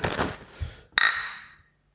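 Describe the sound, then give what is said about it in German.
Glasses of beer from a Berlin neighbourhood brewery clink together in a toast in Berlin: a bright ringing impact that rings out and fades, preceded by a brief rustle of handling and movement. “Dieses, dieses Geräusch hat mir von Anfang an super gut gefallen. Zum Wohl. Zum Wohl.”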